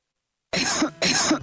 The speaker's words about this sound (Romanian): Chiar dacă pare inofensivă la început, nu te juca cu tusea productivă.